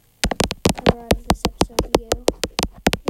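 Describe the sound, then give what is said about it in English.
Glittery, patterned fake nails in blue and pink-to-blue click and tap rapidly in a steady, even rhythm, crisp, while someone talks quietly underneath. “guys are wondering if that sound is my pignails, um, put them on yesterday.”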